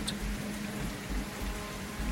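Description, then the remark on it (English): Heavy, driving, lashing rain pours down at Velvet Bottom in a steady, unbroken hiss, with a low rumbling undertone like wind or water. No voices are heard. “He got out of the vehicle and called out her name into the driving rain, although no reply came forth.”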